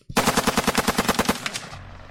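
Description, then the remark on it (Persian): A machine gun fires one rapid, sustained burst of roughly fifteen loud, evenly spaced, sharp shots from below, up toward a just-opened door, ending abruptly with a brief fading echo. No one speaks. “با اون مسلسل مثل دیوونه هایی که خون جلوی چشاشو گرفته بود فقط به هم شلیک میکرد امون نمیداد اون پایین پله ها منتظرم بود”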